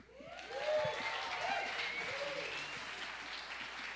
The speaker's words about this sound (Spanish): El público aplaude, muchos levantan sus manos.